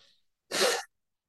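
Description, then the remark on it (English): A single short, forceful nose blow, loud, a noisy burst lasting under half a second, preceded by a faint breathy hiss and followed by silence. “well, I think that's sorry important. to blow my nose on camera.”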